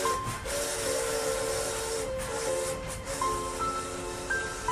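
A steam train hisses steadily with a loud, continuous rush of steam, while sustained whistle tones sound over it, shifting pitch in several long blasts. No one speaks.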